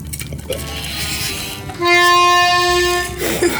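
An accordion sounds one loud, steady, reedy chord held for about a second and a half, preceded by quieter shuffling noises. No one speaks.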